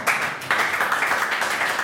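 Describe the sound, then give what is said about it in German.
An audience at a Toastmasters club meeting claps steadily after a speech, a dense patter of many hands with a brief dip partway through, loud and sustained with no voices over it. “In den Toastmaster-Clubs wird auffallend viel und gerne geklatscht.”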